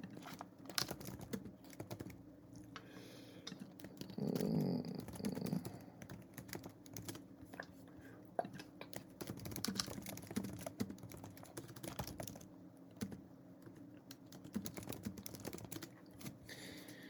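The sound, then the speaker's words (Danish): Rapid clicking of keys on a computer keyboard as someone types a note, continuing steadily for the whole stretch, fairly loud, with a short hum and a low murmured sound partway through. “Jeg skriver det lige ned.”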